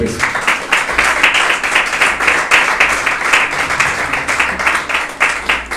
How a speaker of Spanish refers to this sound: dele ofrenda de palmas al Señor